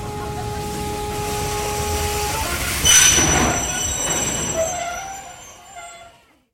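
A train rolls along the rails with a steady, heavy rumble and high metallic wheel squeals, swelling briefly into a louder rush before the noise fades away at the end.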